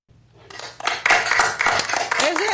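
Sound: applause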